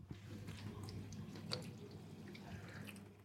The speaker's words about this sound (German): Na, kennt ihr das Geräusch? Ja, da ist auch Wasser mit dabei. Es ist eine Spülmaschine. Ja, genau. Ich bin gerade hier in der Küche, in meiner eigenen Küche mit dem reißenden Mikro und habe die Spülmaschine angemacht.